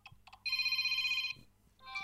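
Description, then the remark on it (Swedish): A phone alarm ringtone plays loudly: short chiming notes, then a sustained bright electronic tone with a fluttering pulse, a brief lull, and the melody starting again. No one speaks. “Det är samma som jag har på alarmet.”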